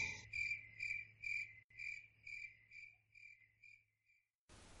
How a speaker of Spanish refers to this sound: la risa de los grillos.